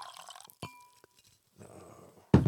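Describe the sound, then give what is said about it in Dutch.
Small wine-tasting glasses clink together in a toast, a bright ringing chime with a sustained tone that fades, followed by soft rustling and a louder clatter at the end. “Omdat eh, een glas moet goed klinken, vind ik.”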